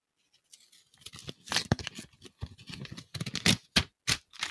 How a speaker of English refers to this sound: I have my ballot here. If I opened the ballot live on a podcast, how about that? You could do that. Okay, I'll do it close to the microphone so you can hear the, the paper tearing.